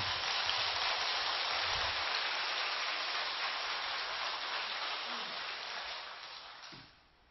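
A crowd breaks into steady, dense applause, the many overlapping claps blending into a continuous roar for about seven seconds before quickly tapering off.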